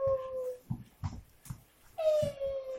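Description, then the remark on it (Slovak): A dog whines and howls in long, high, wavering tones, broken by a few short yelps and thumps in between before the howl rises again. “Ty, tvoja úloha, Baška, je držať hen toho satana ďalej od mikrofónu všeobecne.”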